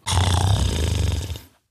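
A hyena growls: a single loud, low, throaty rumble lasting about a second and a half, with a rough pulsing texture, then it stops abruptly. No one speaks.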